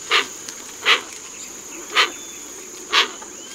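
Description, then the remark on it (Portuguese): Four short, harsh, hissing bird calls come at uneven intervals from a hoatzin, each a raspy wheeze. A steady high insect drone runs underneath, and no one speaks. “E hoje a gente vai falar de uma ave que faz um barulhão na beira do rio, especialmente para quem já foi lá para a Amazônia.”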